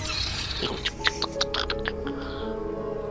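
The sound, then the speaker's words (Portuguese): A voice imitates the snake-like sound effect given to a monster's tentacles in a film, with a quick run of squeaky clicks and faint hissing chirps, rapid and irregular, for about three seconds. “Ficou engraçado esses barulhinhos que eles colocaram nos tentáculos, né? Ah, fica parecendo serpente.”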